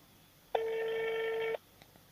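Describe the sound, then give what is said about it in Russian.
A single steady electronic telephone tone, mid-pitched and buzzy with bright overtones, sounds for about one second and then cuts off, alone over a faint low hum with no talking. “Ну ладно, не будем мучить телефон.”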